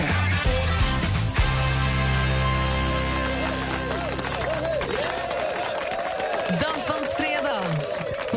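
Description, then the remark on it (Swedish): A group of guests in the Mix Megapol radio studio cheers and whoops with clapping mixed in, loud, rising out of the tail end of music with sustained low tones. “Bra jubel på den där.”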